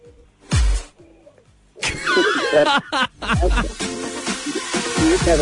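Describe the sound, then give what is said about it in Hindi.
A baby wails in rising and falling bursts, fairly loud, with a thump and a short burst of noise just before the crying begins. “मतलब आखिरी उल्टा काम है ना बच्चा रो रहा है तुम इधर बात कर रहे हो मैं उसके रोने की बात कर रहा हूँ”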